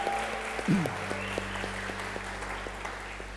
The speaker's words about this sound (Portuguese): Alguém que nos visita pela primeira vez na Casa da Fé, é a sua primeira vez aqui. Glória a Deus, temos uma pessoa, vamos dar um aplauso a Jesus por essa vida.